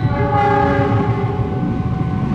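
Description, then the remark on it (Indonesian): A train rumbles past, its horn blaring in a long sustained chord over the steady roar of wheels on the rails. Loud and continuous, with no voices. “PT KAI tolong ya gitu kereta lewat sejam sekali kan, sejam setengah sekali kan”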